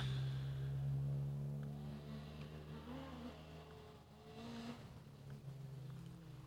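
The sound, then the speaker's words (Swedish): A Volkswagen Golf's engine revs, a steady low growl with strong harmonic bands that rises and dips in pitch as the throttle changes, loud and continuous with no talking. “Det låter som en golf i alla fall”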